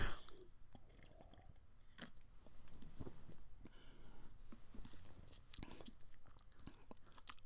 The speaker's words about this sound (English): hold on i'm having another sip of my beer